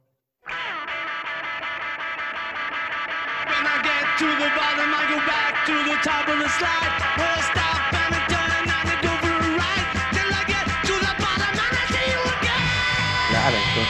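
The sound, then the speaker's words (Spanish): A 2009 remaster of a 1960s band recording plays loud and dense, with guitars, vocals and steady, driving drum hits; the sound fills out and grows louder a few seconds in, then carries on without pause. “este es como el, que más, el más conocido, el que más eh, oficialmente se conoce, el, famoso remasterizado de 2009.”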